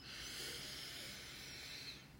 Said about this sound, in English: Let's take a nice deep breath in.